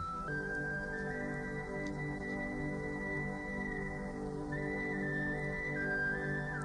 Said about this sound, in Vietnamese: Ngồi lại ngay ngắn, anh ta đưa ống sáo lên thổi. Mọi người lắng nghe. Tiếng sáo đượm buồn như tiếng than khóc của một cuộc tình duyên dở lỡ.